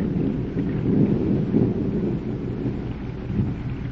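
A steady, heavy downpour roars without pause, with deep rolling rumbles of thunder swelling underneath. No voices, just the dense wash of storm noise throughout.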